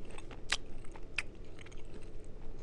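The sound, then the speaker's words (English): Crisp crunching of teeth biting into a brittle pastry shell, kept crunchy by being left in the oven, with a few sharp cracks followed by softer chewing, without talking. “They are pretty crunchy, huh? Yeah, the shells stay the shells stay crunchy,”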